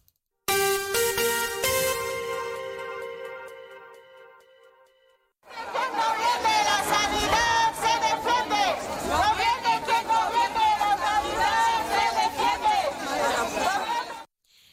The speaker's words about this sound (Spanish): Y eso que escuchaban eran algunos de los cánticos que proclamaban alrededor de esas 300 personas que se manifestaban en el centro de la ciudad para exigir al gobierno de la nación para Ceuta una sanidad pública digna, de calidad y con recursos